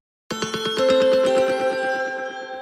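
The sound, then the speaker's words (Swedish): An outgoing phone call to a person in Qatar rings out: a bright, trilling electronic tone with a rapid pulsing warble, starting abruptly and holding steady for about two seconds, fairly loud and clear with no voices. “Då tycker jag vi gör så att vi ringer upp”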